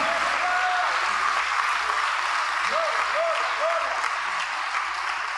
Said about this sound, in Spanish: Oh, denle un aplauso al Señor Dios Todopoderoso en esta noche.